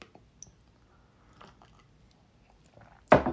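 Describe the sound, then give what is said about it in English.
Someone takes a sip of a drink: a few soft, wet mouth clicks and swallowing noises in near silence, then a sudden loud, breathy slurp at the very end. “Take on a sip.”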